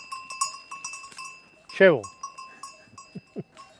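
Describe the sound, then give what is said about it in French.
A walker's unnamed goat bleats once, loud, amid the steady tinkling of a small bell that rings on and off throughout, with a few soft thuds and rustles. “Comment elle s'appelle votre chèvre Oh, elle n'a pas de nom.”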